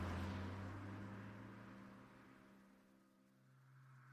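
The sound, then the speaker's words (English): A car engine hums loudly with a steady low drone, then gradually fades as the vehicle pulls away. No one speaks. “Once the man was reduced to ash and bone, I kicked the remains over the edge of the quarry, turned on my heel, got into my car, and went back home.”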